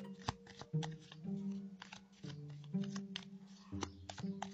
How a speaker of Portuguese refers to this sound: Opa, já saiu pulando uma carta aqui antes mesmo de eu começar a embaralhar. Saiu pulando aqui um Ás de Ouros.